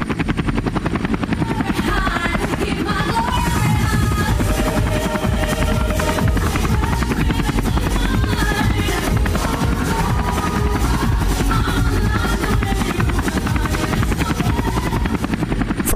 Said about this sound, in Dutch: Die helikopter die vliegt voorbij.